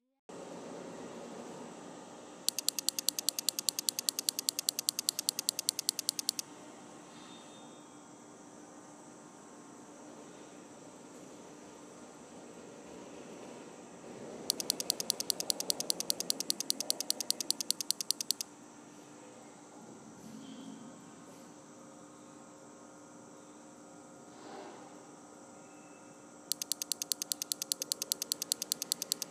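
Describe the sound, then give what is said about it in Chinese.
A clockwork timing device in an art gallery ticks rapidly and evenly in three bursts of about four seconds each, the crisp clicks standing out over a steady low hum, with quiet pauses between them. “音频二：美术馆与计时装置。”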